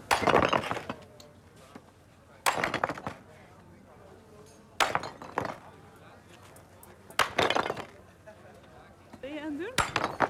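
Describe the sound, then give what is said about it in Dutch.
Recycled cast iron scrap being hacked into small pieces for melting in a cupola furnace: five loud metallic blows land every couple of seconds, each with a sharp crack and clattering ring of breaking pieces, and faint voices murmur between strikes. “Gietijzer aan het eh, kapot hakken.”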